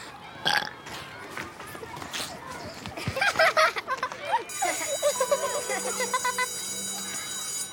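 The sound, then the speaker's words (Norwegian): A forced, croaky burp rumbles out in a few drawn-out pulses, fairly loud, with a thin, high ringing tone hanging in the background toward the end. “Han presser fram en rap som får både Alice og venninna til å le medan de springer derifra”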